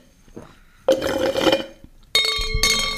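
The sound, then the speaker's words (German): Two bright clinks of glass ring out in quick succession as someone gets a glass of water, each leaving a sustained metallic ringing tone, fairly loud, with faint handling noise before them. “Ich brauche noch ein Glas Wasser, bevor es losgeht.”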